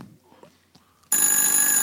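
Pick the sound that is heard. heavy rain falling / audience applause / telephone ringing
telephone ringing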